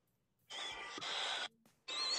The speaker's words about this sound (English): There I go with that breathing hard shit. Can't goddamn breathe.